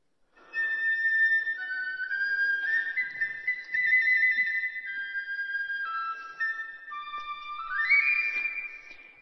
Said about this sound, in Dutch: Het is echt een supermooie fluit. Met zeven tonen zitten er wel op. En eh, eh, nou, prachtig speelt dat ding.